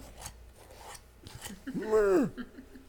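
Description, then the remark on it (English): Scratchy rasping at a morgue drawer door, a few short scrapes, then a voice sliding downward in a drawn-out creaking whine that imitates the sound, moderately loud. “The dead guys like, like Picking at his, at his, at his drawer door.”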